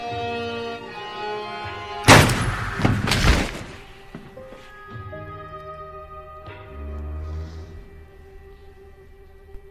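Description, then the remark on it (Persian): A loud, sharp gunshot, as a man puts a gun to his own head and fires, bursts out about two seconds in, followed by a second heavy crack a moment later, both ringing over sustained, tense background music with no one speaking. “حالا خودت اسلحه رو میذاره رو سرش شلیک میکنه”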